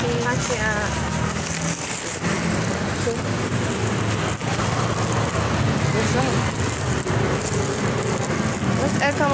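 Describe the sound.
A steady, dense hiss of rain falling throughout, with people talking over it and a faint rumble of passing vehicles in the background.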